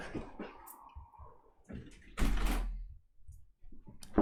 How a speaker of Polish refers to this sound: E, czekajcie, zam zamknę okno, żeby samoloty nie hałasowały.